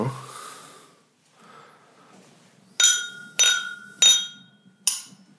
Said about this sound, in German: Lass darauf erstmal kurz anstoßen.